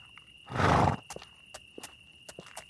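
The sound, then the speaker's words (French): A horse gives a short, loud neigh, then hooves clip-clop at a slow, uneven pace, five or six distinct knocks. Nobody speaks. “Comme c'est tout en bois, tu peux accrocher euh, les, chevaux, euh, par leur.”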